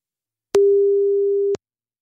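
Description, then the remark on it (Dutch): A single telephone ringing tone as a phone call is placed: one steady, mid-pitched electronic beep lasting about a second, starting and stopping with soft clicks, then silence. No one speaks. “Nou, laten we eens even gaan bellen.”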